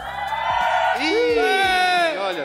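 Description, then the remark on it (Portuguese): A studio audience cheers and shouts loudly for about two seconds as a noise-meter vote for 'Alien', a dense wall of voices with high whoops that swoop up and down in pitch before the noise starts to fade. “Alien, quem é Alien aí faz barulho.”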